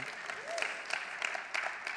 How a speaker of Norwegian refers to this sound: Jeg kan godt klappe.